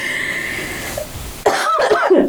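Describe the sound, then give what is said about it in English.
A quick burst of coughing, a couple of rough, throaty hacks following a short quiet stretch with a faint tonal hum. “coughing or clearing my throat.”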